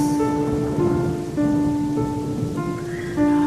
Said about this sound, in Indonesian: Tak berapa lama, hujan pun turun deras.